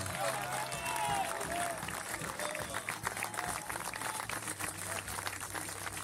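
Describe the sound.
A crowd applauds steadily for about six seconds, a dense, even wash of clapping with a few voices calling out over it and a low steady hum underneath.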